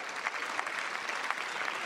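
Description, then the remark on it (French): Steady, dense applause from a large crowd in a parliamentary chamber, many hands clapping continuously at even volume without voices standing out, applauding police officers who died in service. “je voudrais ici, depuis trois ans, vous lire et j'espère vous faire applaudir dans l'ensemble de cet hémicycle tous les policiers morts en service et qui laissent des veufs, des veufs, des orphelins.”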